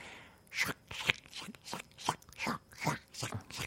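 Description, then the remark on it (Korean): Crisp, wet crunching, like a dog's teeth biting into a thick cabbage core or an apple, repeating in a steady chewing rhythm of about nine bites, with no talking. “특히나 야채 종류, 네, 채소 그 종류, 채소 종류를 두꺼운 뭐 양배추 심이라든지 네. 사과라든지 그런 과일 아삭아삭한 네. 애들을 씹으면 소리가”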